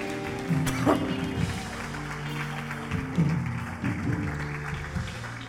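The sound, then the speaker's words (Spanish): An audience claps steadily for several seconds to give glory to God, a dense patter of many hands, with scattered shouts and voices rising above it over a sustained musical drone. “Si usted lo cree, Dale un aplauso, dele gloria a Dios en este día.”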